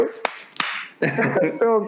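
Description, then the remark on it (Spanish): Two sharp hand claps ring out a moment apart, each with a short, bright decay, and then a person starts talking. “te la voy a aplaudir, tú.”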